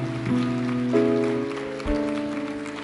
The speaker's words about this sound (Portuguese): Aplauda ao Senhor.